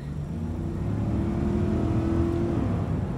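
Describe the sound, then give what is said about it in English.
The 400-horsepower T8 twin engine of a Volvo XC90 Recharge plug-in hybrid SUV revs and accelerates, its deep, steady roar rising in pitch as it pulls away, loud with no voices over it. “The thrill of a 400 horsepower T8 twin engine.”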